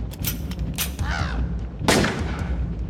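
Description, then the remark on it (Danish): Gunshot sound effect: a few sharp cracking bursts, ending in one loud blast with a ringing decay, over a low rumbling background and a brief warbling tone. “Det var den ene kugle, den øh, bliver øh, perforeret og flyver til... Rammer et hjørne. Bang.”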